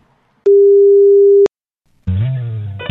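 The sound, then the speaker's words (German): A single steady telephone tone sounds for about a second while dialing a call, with sharp clicks at its start and end, followed by silence and then a voice speaking. “Ich habe hier wir, einen, wir, müssen einen wichtigen Anruf tätigen.”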